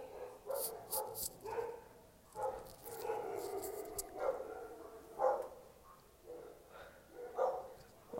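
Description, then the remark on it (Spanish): Dogs bark repeatedly in uneven bursts, several overlapping voices, yips mixed in, with no talking over them. “Verga, putos perros, güey.”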